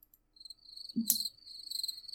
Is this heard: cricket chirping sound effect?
yes